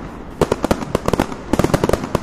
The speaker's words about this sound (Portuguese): Que isso, agora acabou com todo o nosso estoque aqui de fogos.